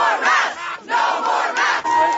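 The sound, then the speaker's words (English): A crowd of student protesters at Thunder Ridge High School in Douglas County, USA, chants loudly in unison one morning, calling for an end to the mask mandate, their voices rising in strong rhythmic bursts with short breaks between phrases, with no single speaker standing out. “It was a morning of protests for a few schools in Douglas County, USA! calling for an end to the mask mandate.”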